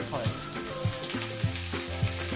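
Food sizzles in hot oil with a steady, bright crackling hiss, punctuated by soft rhythmic scrapes roughly every half second, like stirring, over a faint tonal hum underneath.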